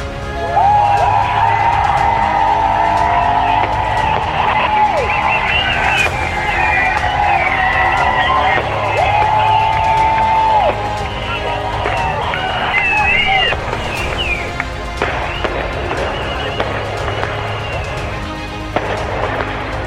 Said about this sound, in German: Und da die drin nicht sehen können, wie viele hier sind, lasst uns doch mal richtig laut sein, dass sie eine Vorstellung davon bekommen können, wie viele Leute sich heute hier versammelt haben.